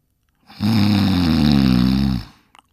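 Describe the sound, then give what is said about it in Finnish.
A single loud, drawn-out snore performed by a human voice, imitating a man asleep sitting on a wall bench with his back leaning against the wall, a rough rattling rumble lasting about a second and a half, followed by a couple of faint clicks. “Kuului yhä mahtavampi yrin.”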